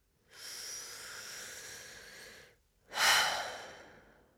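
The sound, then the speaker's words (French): A long, slow, deep breath drawn in through the nose, a brief pause, then a stronger, airier exhale out through the mouth that fades out, clearly audible with no talking, as part of a relaxation breathing exercise. “Inspirez profondément par le nez et laissez tout l'air ressortir par la bouche.”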